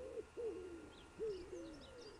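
A wood pigeon coos in soft, low, hooting phrases, two drawn-out calls with a short pause between, while faint higher chirps from other birds flicker in the background.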